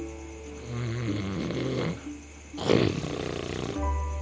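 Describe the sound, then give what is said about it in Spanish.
Deep, rumbling snores from a sleeping bear, two heavy breaths with a raspy rattle, loud, with a low growl-like drone between them and no talking. “¿Lo oyes? Ya se quedó dormido.”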